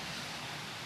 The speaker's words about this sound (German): es wird gleich sehr laut. Die große Aquarienhalle mit riesigen Wasserbecken, mit Pumpen, die rauschen, man hört es im Hintergrund.